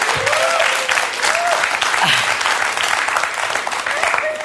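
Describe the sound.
Steady applause from a crowd, dense and sustained throughout, with faint tonal sounds and murmuring voices mixed beneath the clapping.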